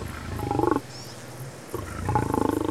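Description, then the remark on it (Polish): A lion resting near antelope remains on a grassy plain in Masai Mara National Park in the morning roars in two deep, throaty bursts separated by a short low rumble, each call pulsing with rough grunting texture and loud. “Nieopodal krwawych szczątków antylopy odpoczywa lew.”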